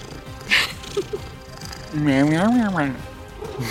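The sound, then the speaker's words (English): A person's voice imitates a cat with one drawn-out, sassy meow that rises and then falls, fairly loud, after a few soft clicks and rustles. “Were you arguing with a cat?”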